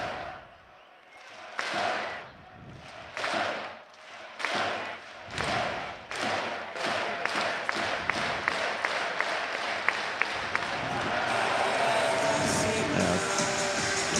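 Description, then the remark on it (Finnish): An audience claps in unison during a victory celebration, slow steady claps that quicken into rapid rhythmic clapping before dissolving into a continuous wash of loud applause and crowd noise. “Kättä yhteen ja yleisö mukaan.”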